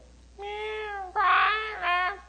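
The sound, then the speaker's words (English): A voice imitates a crying infant: three loud, wavering wails, each a drawn-out, high-pitched cry with a brief catch between them, and no other talk. “You have that infant, you bring them home, and they always just go,”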